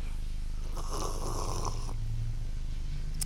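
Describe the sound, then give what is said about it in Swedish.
Someone drinks water right into the microphone: about a second of wet slurping and gulping, then quiet with only a low steady hum underneath. No one speaks. “Jag ska dricka lite vatten nu och det kommer bli gott.”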